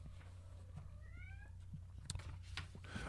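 A cat cries out with a single drawn-out, wavering meow, fairly soft and somewhat distant, followed by a few sharp clicks over a steady low background hum.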